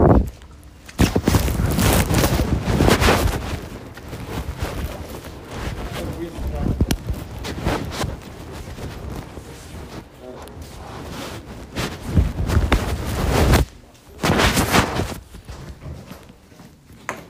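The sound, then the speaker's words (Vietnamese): Loud, scratchy rustling and fumbling as a phone is pushed into a jacket pocket and an umbrella is folded before walking into a dormitory, with irregular bursts of crinkly noise and some footsteps throughout. “bây giờ là mình phải đút điện thoại vào túi áo xong rồi mình cụp cái ô lại mình đi vào ký túc xá có thể là sẽ hơi sột soạt một chút nha”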